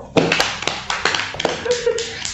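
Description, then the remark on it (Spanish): A short burst of applause from a small group applauding themselves as they say goodbye, dense overlapping claps, with a few sharper individual claps standing out before it tapers off. “Un fuerte aplauso para nosotros.”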